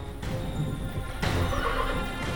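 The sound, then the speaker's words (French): An angry, untameable horse neighs loudly and harshly, threatening with its hooves the grooms trying to approach it: a strained whinny that surges and wavers for a couple of seconds, with no voices. “À chaque nouvel assaut des palefreniers, la bête redouble de colère, menace de ses sabots quiconque ose l'approcher.”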